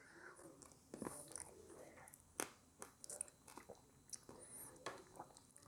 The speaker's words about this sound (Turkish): Bu büyük yeşil üzüm sesidir. büyük yeşil üzüm sesine ihtiyacım var. Buyurun. Amme hizmeti. Buradan alabilirsiniz. Tamamen şeysiz, telifsiz. Buyurun üzüm yeme sesi.